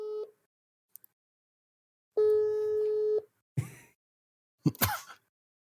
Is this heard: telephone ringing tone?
yes